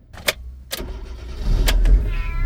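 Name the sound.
taxi driving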